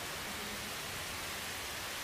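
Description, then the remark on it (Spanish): A steady, dense wash of heavy rain pours down without a break, an even hiss filling the whole clip with no voices or other sounds. “Mira, se vino el agua otra vez.”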